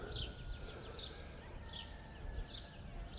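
Faint, high bird chirps, from roosters and small birds just before dawn, repeat about every second over a steady hiss of outdoor background noise, with no one talking.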